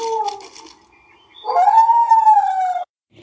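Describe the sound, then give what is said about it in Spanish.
Puppies caught in a fire in the trees howl for help in high, wavering cries: one short howl, a brief pause, then a longer, louder drawn-out howl that ends abruptly. No one speaks. “Al asomarse por la ventana, ve y escucha un incendio en los árboles, con unos perritos maullando pidiendo ayuda.”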